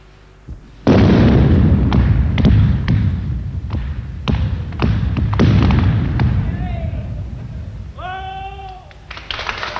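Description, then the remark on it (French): The final blast of the Mont Blanc road tunnel, as the two teams' sides meet: a sudden heavy blast gives way to a long, roaring rumble of a rock wall collapsing, broken by repeated sharp cracks and thuds; near the end, raised voices ring out over the fading rumble. “Et voici précisément exactement sur la paroi qui vient de s'abattre au moment où les deux équipes, où les deux équipes s'atteignent.”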